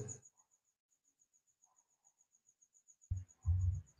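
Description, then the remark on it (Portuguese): A cricket chirps steadily in a rapid, even pulse, fairly faint and continuous throughout, with brief low rumbling noises at the start and near the end. “Tem um, um, um grilo aí na.”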